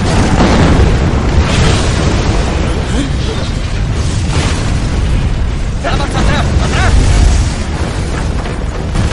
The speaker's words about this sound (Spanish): Jan lanza otro bus en dirección a Lin Impacta sobre el almacén de la munición. Se producen varias explosiones.